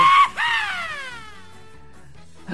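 A short, loud, high-pitched playful scream bursts out, a radio show team member's signature little scream in the studio, then trails off into a falling squeal that fades within about a second, with no talking around it.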